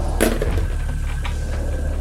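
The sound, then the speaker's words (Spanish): Chairs are dragged roughly across a hard floor at night: one short, loud drag, followed by fainter shuffling scrapes over a low, steady background hum. “Recorrían las sillas.”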